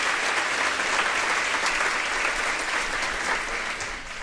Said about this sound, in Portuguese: Pode aplaudir? Amém.